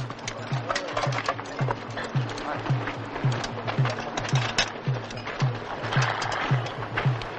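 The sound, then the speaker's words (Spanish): Horses being taken out of where they are kept as a company of soldiers prepares to leave, their hooves thudding in a steady, even rhythm of low knocks, about two per second, beneath a busy wash of murmuring voices and general commotion. “Otros sacan a los caballos de donde los guardan.”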